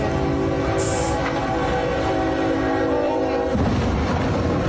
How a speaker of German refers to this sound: Jetzt kommt der Zug.